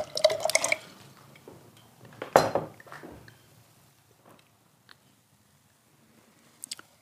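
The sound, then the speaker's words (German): Sparkling wine is poured into a glass for a blind tasting in short bursts, with a trickling, fizzy splash, a brief glassy clink in the middle, and faint clinks near the end. “Ihr Glas bitte.”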